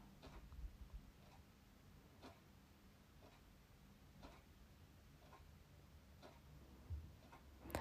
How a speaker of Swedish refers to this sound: Hör du mina klockor här i bakgrunden? Hör du klockorna? Stanna till om du behöver för att lyssna. Hör du klockorna?